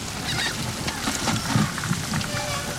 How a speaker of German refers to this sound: Herrlich, die Möwen.